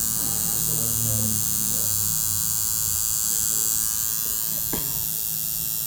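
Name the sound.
tattoo machine buzzing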